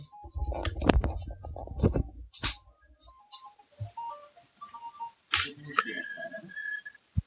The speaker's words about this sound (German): Äh, mal ganz kurz, mein Telefon klingelt.